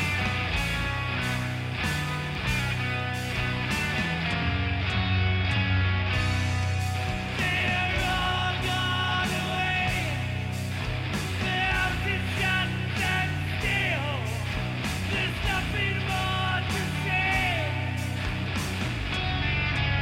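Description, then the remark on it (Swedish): A loud, dense rock-influenced metal song plays continuously, with a steady driving drum beat, thick distorted guitars and a strained singing voice riding over the top. “så är det väl inte ett jättekonstigt move att spela någonting som låter så här.”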